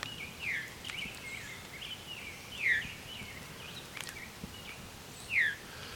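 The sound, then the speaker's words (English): A veery thrush, directly overhead, gives three downward-slurred 'veer' calls, the call it is named for, spaced a couple of seconds apart, moderately loud against a quiet outdoor background with faint chirps from other birds. “Veery is a type of thrush. And it's named for this viru call.”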